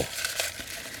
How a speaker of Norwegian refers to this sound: Det her det er lyden av små, hvite, sammenbretta lapper som ligger i en gullfarga skål med Stets, og det er den hellige gralen her i Etikketaten. Og på lappene så står det spørsmål, f.eks.: Hva er det slemmeste du har gjort?